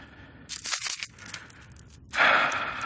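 Crinkling, crackling plastic as a bag is torn open with teeth: a sharp burst of rustling, a brief pause, then a second, louder stretch of bright, scratchy tearing noise. No one speaks.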